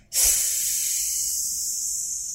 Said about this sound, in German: Also lange ausatmen auf entweder mit so einem Strohhalm im Glas kann man natürlich machen oder auf S.